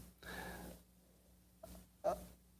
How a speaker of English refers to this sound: So my dog uh, moved from her place to be closer to me, and now she's snoring again.